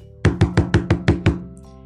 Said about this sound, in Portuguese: Na manhã seguinte, ouviu alguém bater na porta. Ninguém nunca batia na porta dela. Quem poderia ser?